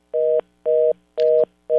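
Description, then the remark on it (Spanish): A telephone line tone after a dropped call, sounding as steady, evenly spaced beeps, about four short pulses with brief gaps, loud, with no voices. “Tenemos tuvimos problemas con la, con la llamada. Vamos a ver si podemos reconectar desde el control técnico eh, de la estación y un poco tratar de conectar con una mejor señal al compañero periodista”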